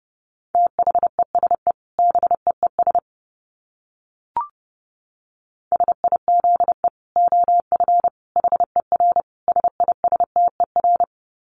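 Rapid Morse code at about 30 words per minute: a steady mid-pitched beep keyed into quick dits and dahs, with a pause and a single click partway through before the sending resumes.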